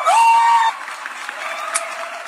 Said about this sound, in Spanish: Aplauso para ellas dos, de verdad que, ¿qué les puedo decir?